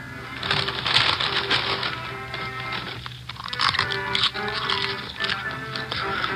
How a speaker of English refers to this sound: We waited. … munched on a bag of popcorn.